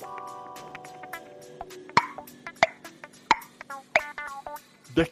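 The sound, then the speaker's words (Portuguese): A tennis player grunts sharply with each stroke, about five short voiced bursts roughly a second apart, mixed with crisp ball-impact pops and faint background tones. “por que, que os caras fazem esses gemidos quando jogam tênis”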